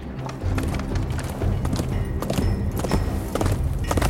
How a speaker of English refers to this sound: Oh appears a horse is approaching the castle. That must be my mother.